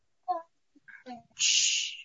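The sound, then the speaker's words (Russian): A young child babbles in their own room in a few short, high-pitched vocal bursts, ending in a loud, breathy squeal that lasts about half a second. “я умудрилась спрятаться в комнате у ребенка, и ребенок очень доволен этим обстоятельством. Пытается принимать участие.”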